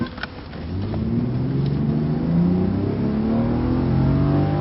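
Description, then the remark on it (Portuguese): A car engine cranks and catches as a key is turned, then revs up, its low steady drone climbing in pitch as it runs loud with no talking. “Ele vira a chave e dá partida no carro.”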